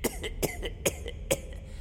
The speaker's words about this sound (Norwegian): Så glemte jeg å ta på skjerf, så da Host, host. Uff da.